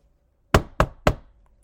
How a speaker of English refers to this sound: an aggressive pounding at the door froze him in place.